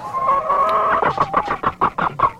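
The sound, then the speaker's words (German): An agitated chicken gives a drawn-out squawk, then breaks into a rapid run of about eight sharp, rhythmic clucks, loud with no talking over it, while a person strokes it to calm it. “Möchen streichelt das Huhn auch gerade. Er beruhigt es nochmal, es ist sehr aufgeregt.”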